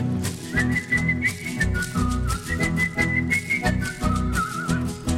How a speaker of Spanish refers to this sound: la estrategia transformó y en vez de la cancioncita solo la música chifló.